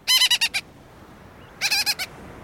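Two bursts of harsh, rasping bird calls, each a rapid series of about five nasal notes, sounding close and loud with a short quiet gap between them, like a gull-billed tern.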